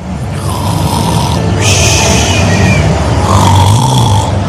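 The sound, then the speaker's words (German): A person fakes a loud, exaggerated snore while sitting on a seat, two long rasping breaths with a rough, throaty rattle, one drawn out and then another after a short pause. “Willst du damit andeuten, dass Retro zum, lang, zum Schnarchen langweilig ist?”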